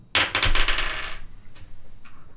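Dice clatter across a tabletop during an initiative roll in a role-playing game, in a quick burst of rattling clicks lasting about a second, then settle, with a couple of faint stray taps afterward. Fairly loud, with no talking.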